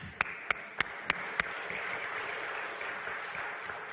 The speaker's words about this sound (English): Yeah, let's clap for that.